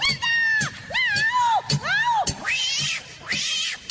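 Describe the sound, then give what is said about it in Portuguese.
A singer imitates a cat, letting out a run of five or six drawn-out, wavering meows that rise and fall and stretch into caterwauling yowls, loud. “Eu sou teu gatinho.”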